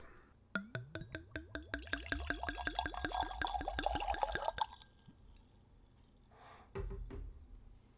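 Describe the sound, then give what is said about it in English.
A screw cap bottle of Zwack with a bright red metal cap is opened, then the dark toffee-colored liquor glugs steadily into a glass, a fast run of bubbling pulses rising in pitch for about four seconds, then stopping, followed later by a short soft rustle. No one speaks. “All right, so let's open this thing up and give it a taste. Good old screw cap.”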